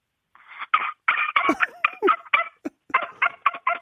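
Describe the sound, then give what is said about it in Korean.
A child's voice imitates a puppy, a pet dog, barking: a quick run of about a dozen short, high yaps and yips, fairly loud, with no other talking. “강아지 가, 그래, 강아지 소 한번 들어볼게요, 강아지.”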